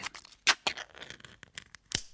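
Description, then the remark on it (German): The closure on top of a can being opened: a run of sharp clicks and scratchy snaps, with three louder cracks standing out among quieter ticks, and no talking. “Öffnen Sie den Verschluss an der Oberseite der Dose.”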